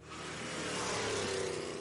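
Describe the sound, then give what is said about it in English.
The powerful engine of Joe Biden's vintage Corvette rumbles and revs steadily, its deep harmonic drone rising slightly in pitch over a couple of seconds, with no voices present. “Have you seen that Joe Biden has a vintage Corvette?”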